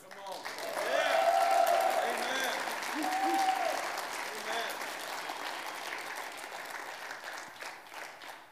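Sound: audience applauding in praise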